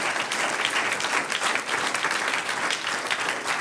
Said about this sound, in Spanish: Un aplauso al Señor, aleluya.